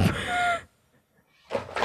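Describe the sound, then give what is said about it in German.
A book drops onto the floor with a loud, broad clatter and rustle lasting about half a second, then a brief silence before a second sharp thump. “Jetzt ist mein Buch runtergefallen.”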